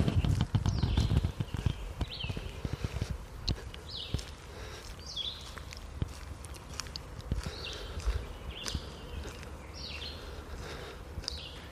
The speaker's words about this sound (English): You can kind of hear me walking, little breathing there, but the audio, as you can tell in parts, it was actually really nice. The birds were definitely having a good morning.